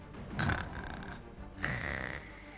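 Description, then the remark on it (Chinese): Two long, rasping snores in a row, each a rough, rumbling inhale with a buzzy texture, fairly loud and steady with a short pause between them. No talking. “此时的…却打起了呼噜。”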